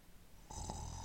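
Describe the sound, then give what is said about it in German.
A single loud snore from a woman asleep in bed breaks in about halfway through after near silence, a raspy, buzzing drone that holds steady to the end with no voices. “Schon nach mehreren Minuten fing sie an zu schnarchen wohl eher um andere Bettnachbarn zu ärgern.”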